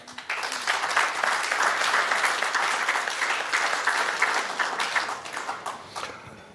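A crowd claps steadily for several seconds, a dense wash of many hands that swells quickly and holds at a strong level before easing off toward the end.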